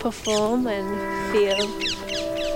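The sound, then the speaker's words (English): A parakeet in Tottenham Marshes gives a run of sharp, quick descending chirps, clear, repeating several times over a person's steady voice. “Ah, there's a parakeet.”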